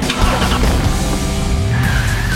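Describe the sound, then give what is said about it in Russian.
A Jaguar F-Pace crossover SUV driving hard during a test drive, its engine droning loudly and rising in pitch, with a thin tire squeal emerging toward the end. No voices. “Устроим тест-драйв.”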